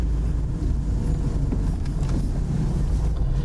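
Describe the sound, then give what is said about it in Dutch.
Steady low rumble of a car driving along a small street just after turning right off a main road, approaching a cemetery, with constant road and engine noise and some wind buffeting, no voices. “We zijn net eh, van de grote weg afgebogen. Rechts een klein straatje in.”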